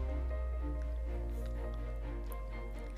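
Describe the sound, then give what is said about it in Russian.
A single small pink liquid drop drips from an uncorked test tube onto a dead mouse's snout, over a steady low hum, with a few soft, wet ticks scattered through the quiet and no voices. “Откупорив пробирку, аптекарь капнул одну розовую капельку на мордочку дохлого мышонка.”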